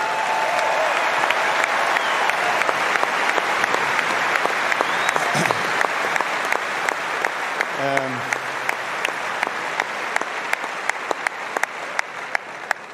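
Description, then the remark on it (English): A large stadium crowd applauds steadily throughout, dense overlapping clapping from start to finish, with a brief voice or shout rising out of it about midway. “So you deserve a great respect and great applause for that.”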